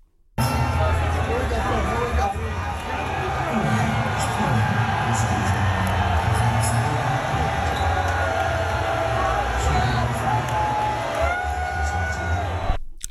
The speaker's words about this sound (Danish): Så det bifald, det var til Trump faktisk? Ja. Okay. Det var ikke øh, Conor McGregor, der kom ind. Det var Donald Trump, der kom i sit meget klassiske jakkesæt